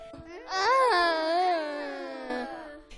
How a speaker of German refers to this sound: Von weitem hört der Ohrwurm Günther lautes Stöhnen.